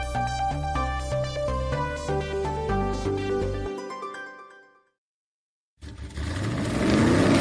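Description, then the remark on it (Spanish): A musical sting fades into a brief silence, then a loud car engine roars in, revving upward in pitch for the last couple of seconds. “Voces y rugidos en autos y motos de Blue Radio.”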